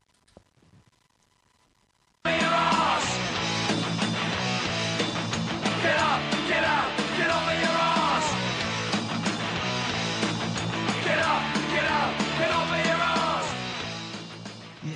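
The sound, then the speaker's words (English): A short musical jingle introducing a new feature on G-Man's Av It Sessions on Boot Boy Radio bursts in after a near-silent start, loud and full with steady beats and bright, swooping melodic lines, playing on without any talking over it. “If you can hear that music, you'll know that it's a new it's a new feature coming up on G-Man's Av It Sessions on Boot Boy Radio, and we'll be sort of telling you about a gig.”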